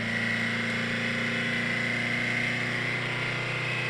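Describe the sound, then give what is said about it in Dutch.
An old camper van engine drones at high revs, a steady strained hum with a whining tone on top, loud and continuous with no talking. “Moet je horen hoeveel toeren dat ding maakt.”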